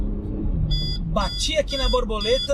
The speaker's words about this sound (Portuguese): Desculpa o barulho aqui, é do detector de radar, porque apesar de Brasília ser uma cidade muito boa, com um estilo de vida, uma qualidade de vida excepcional, que tem de ruim é, por exemplo, os radares, que a cada canto aqui tem um radar.